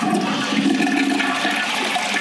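A toilet flushes, a loud steady rush of water swirling through the bowl for a couple of seconds with no voices over it.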